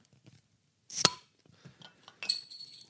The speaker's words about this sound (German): Aber jetzt müssen wir uns halt irgendwie vom Mikro wegbewegen, um das Bier aufzumachen. Ja. Also, ähm, ja. Wir kriegen das hin. Genau. Mal gucken, ob man trotzdem irgendwie einen Plöpp-Sound hier dran kriegt.